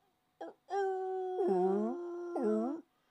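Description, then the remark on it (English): A short yelp, then a long, loud, wavering wolf-like howl that swoops up and down in pitch twice before cutting off. It is clear, with no talking. “It sounds like sounds like a wolf.”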